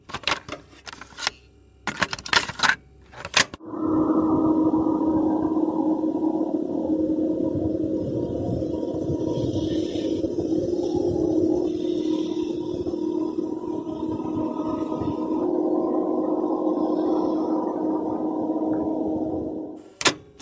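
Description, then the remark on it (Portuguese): A few sharp clicks lead into an eerie, pulsing hum, a recorded sound of a UFO: a steady harmonic drone that slowly swells and wavers back and forth like waves for about sixteen seconds before cutting off abruptly. “Não, não um vídeo de YouTube, a gente podia botar o barulho do OVNI, que é um negócio assim muito marcante, eu acho, né?”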